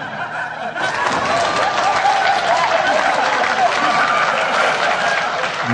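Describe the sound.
A crowd applauds two performers after a song, with steady, dense clapping that swells in after a brief softer start and stays loud throughout, with some laughter and voices mixed in underneath.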